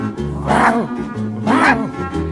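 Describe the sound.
A person imitates a dog barking with two loud 'woof' sounds about a second apart, their voice rising and falling in a bark-like way over a low steady background hum.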